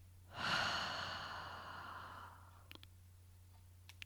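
A single long, breathy exhale during a breathing exercise, starting strong and slowly fading over about two seconds, followed by a few faint clicks against a low steady hum.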